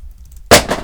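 A mobile phone is dropped and hits a hard floor with a sharp, loud crack, followed by a brief second clatter as it bounces, after a moment of near silence.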